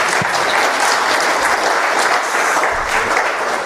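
Sustained, loud applause from an audience, a dense wash of many hands clapping at a steady level with no clear individual beats, continuing throughout without pause.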